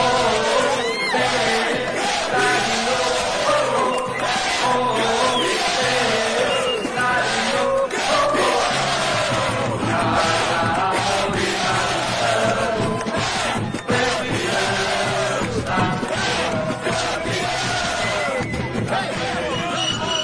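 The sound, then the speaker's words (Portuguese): A large stadium crowd of Operário football fans from Mato Grosso do Sul, celebrating the club's state championship title, roars and chants continuously, a dense, loud wall of cheering voices that stays steady throughout without a break. “Faz a festa, torcida do Operário Noroeste, Esquadrão Operário do Carro operiano.”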